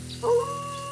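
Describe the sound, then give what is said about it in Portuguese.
A voice imitates a wolf's roar: one short, mid-pitched vocal burst that swells quickly, then trails off into a faint, thin sustained tone over a low steady hum. “E foi logo mandando de novo aquele rugido de lobo para impressionar.”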